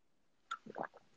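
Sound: person drinking water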